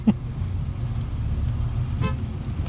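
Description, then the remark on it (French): A car horn gives a short, sharp toot from a driver behind, set against the steady low rumble of a car engine and road noise, on a road in Mauritius. No one speaks. “en plus le mec il klaxonne derrière alors c'est vraiment ça passe.”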